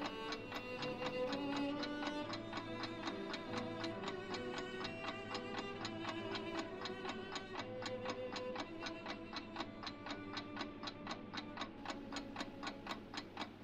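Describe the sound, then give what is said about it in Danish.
A clock ticks steadily with crisp, evenly spaced beats over a sustained, humming tonal backdrop. The ticks grow sharper and more distinct toward the end, and no one speaks. “Du kigger på uret.”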